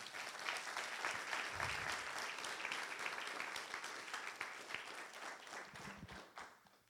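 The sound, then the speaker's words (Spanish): An audience applauds loudly for Jesus, dense sustained clapping from many hands for several seconds before tapering off toward the end. “¿Por qué no le das un aplauso fuerte a Jesús?”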